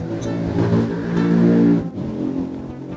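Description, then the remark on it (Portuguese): A motorcycle engine roars past, building to a loud peak and then dropping off as it moves away, with a steady mechanical drone throughout and no talking. “Ah, olha a moto passando.”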